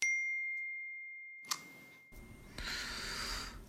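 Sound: text message notification ding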